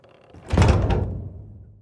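A heavy wooden grand door of Castle Eris swings open with a deep thunk and a creaking groan, its low rumble fading out slowly. No voices are heard.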